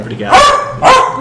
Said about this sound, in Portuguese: E desculpem pelo meu cachorro que está aqui do lado reclamando.